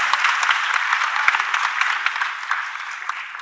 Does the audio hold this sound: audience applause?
yes